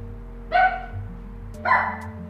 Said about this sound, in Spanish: Esa es Simona, mi perra.